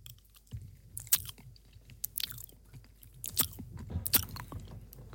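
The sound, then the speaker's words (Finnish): Someone chews a snack, with soft, irregular crunching and smacking bites scattered over several seconds, fairly quiet and with no talking. “Miltä se syöminen kuulostaa?”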